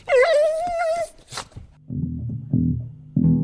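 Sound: dog whimpering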